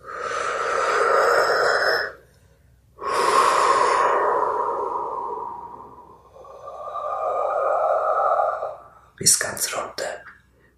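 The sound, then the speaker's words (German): Airy breathing in a breathing exercise: a short, full breath in, then a long, drawn-out, whooshing breath out lasting several seconds, followed by another slow exhale and a few quick, choppy puffs at the end. “Aber tatsächlich ist es so, dass du mit dem Ausatmen, lass uns das nochmal machen, ganz einatmen, so als würdest du den Kopf atmen und dann ganz ausatmen, als würdest du bis in die Füße runteratmen und los geht's.”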